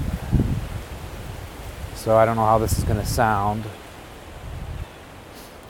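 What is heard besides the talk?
wind blowing through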